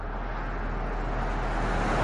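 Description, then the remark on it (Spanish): A patrol car drives steadily along a deserted road, its engine and tire rumble forming a continuous hum that grows slightly louder over the couple of seconds, with no voices. “El coche patrulla circula por una carretera desierta.”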